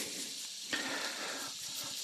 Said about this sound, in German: Und da reibe ich jetzt hier meinen Knoblauch direkt oben drauf.